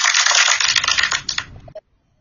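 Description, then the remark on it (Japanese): A burst of applause sound effect, a dense crackle of many hands clapping together at once, loud and steady before it tapers off and stops abruptly, with no voices. “やはりですね、なんかこのパチパチパチパチパチっていう拍手が出てくるとすごく嬉しいですね。”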